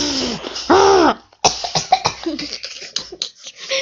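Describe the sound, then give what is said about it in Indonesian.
A person imitates a rhinoceros snorting through its nose, first with a drawn-out, groaning huff, then a sharp burst followed by a string of short, breathy snorts, fairly loud. “Nah, ketika mencium bau mencurigakan dan mendengar suara berbahaya, badak akan mengeluarkan suara yang berasal dari hidungnya, lalu berjalan menyeruduk ke depan dengan cepat.”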